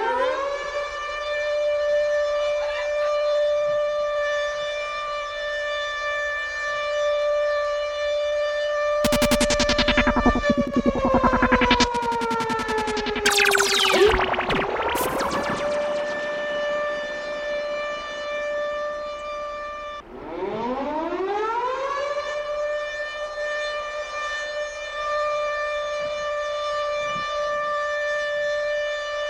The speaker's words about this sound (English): When you hear that siren